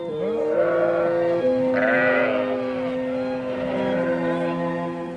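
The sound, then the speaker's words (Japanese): Sheep bleat continuously, several overlapping wavering cries layered together, loud, with no talking over them. “あああの小さいのが困っているなすぐ行くぞおちびちゃんお前をここに置き去りにはしないよお前の泣き声が聞こえたからね私はいつでも羊たちを助けに行くつもりだよ”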